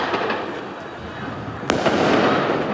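Firecrackers going off: a steady hiss of crackling pops, with one sharp, loud crack standing out partway through. No voices are heard.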